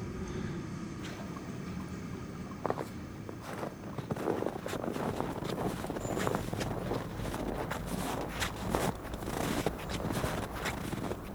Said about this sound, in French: là, j'entends à gauche, euh, derrière, euh, des gens qui font du ski de fond. on entend le bruit des skis sur la neige.